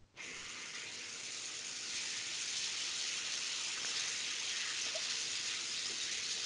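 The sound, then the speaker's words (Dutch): Meat sizzles in a frying pan in a kitchen, the fat making it hiss: a steady, loud hiss of frying that runs unbroken for several seconds, with no talking over it. “Nee, uh, er ligt vlees in de pan.”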